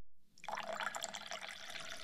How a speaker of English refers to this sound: Some clean distilled water in the bowls where I dip my fingers.